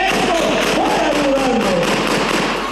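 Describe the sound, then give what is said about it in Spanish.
A rapid burst of gunshots fired by unknown people during a mayoral campaign rally in the community of La Monera, Cocula: loud sharp cracks in quick succession for a few seconds over a noisy, crowded background, with raised voices faintly audible beneath. “tras la ráfaga de balazos, el candidato retomó su discurso”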